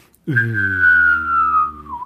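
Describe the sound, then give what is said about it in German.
A voice uses the mouth to imitate a power outage, with all systems powering down: a steady whistled tone over a low hummed drone, both slowly sinking in pitch for about two seconds before trailing off. “Äh, kannst du wirklich einen Stromausfall mit dem Mund simulieren?”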